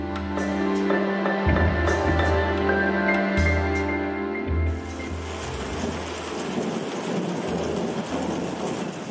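Steady rain pours down in a thunderstorm, with deep low rumbling underneath; the first half is partly covered by a sustained droning tone before the rain noise takes over fully.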